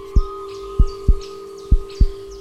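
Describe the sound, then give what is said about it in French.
Deep, booming heartbeat thumps repeat steadily, five pulses in pairs with a low hum droning underneath and faint chirping tones above. No one speaks. “Son cœur lui remonte dans la glotte.”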